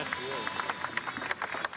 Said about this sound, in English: What are they clapping about? What's going on?